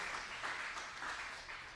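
A crowd at a worship service breaks into steady applause for the tech team, many hands clapping in a dense, even wash of sound that stays fairly loud throughout, with no voices standing out.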